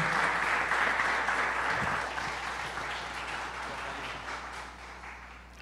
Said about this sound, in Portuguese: Queria uma salva de palmas para ela, por gentileza.